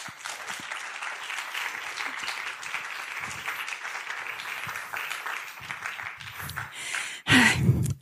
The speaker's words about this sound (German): Und äh, dem ganzen Löwenenrudel, das äh, also von der Webseite filmlöwen.de, die dafür gesorgt haben, dass das halt alles heute hier gut funktioniert. Auch für all diese nochmal ein Applaus, bitte.